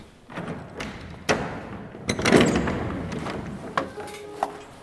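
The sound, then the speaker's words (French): A classroom door swings shut with a solid thud and a brief rattle, preceded by a few light knocks and followed by smaller clicks in a quiet setting. “Les portes sont différentes à chaque étage. Elles ont un bruit spécifique, comme par exemple en salle 119, la porte grince toujours.”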